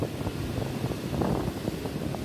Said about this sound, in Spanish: además del mar, estamos aquí en la playa